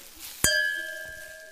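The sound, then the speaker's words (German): Two glasses of Riesling wine clinking in a toast: a single bright clink followed by a clear ringing tone that slowly fades over about a second, fairly loud against a quiet background. “Und machst du uns zwei Gläser und eine Flasche Riesling fertig? Ah, Luki, endlich wieder Riesling und Fritte. Cheers!”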